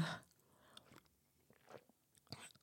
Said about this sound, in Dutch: Ik neem even een slokje van mijn thee.